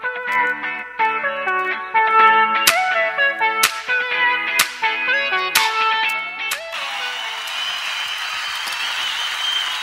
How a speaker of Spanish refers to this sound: vamos con La cultura es la sonrisa. Melodía temática.